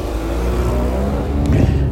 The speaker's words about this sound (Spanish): A ver, que viene un coche por aquí